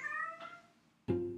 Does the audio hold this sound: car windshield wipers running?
no